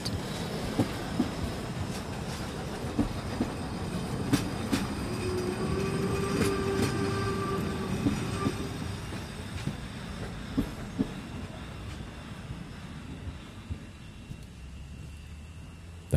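A steam train running at full steam from Putbus to Göhren rolls along the rails with a steady rumble and irregular wheel clacks, while a sustained high squealing tone rises and fades midway through; no one speaks.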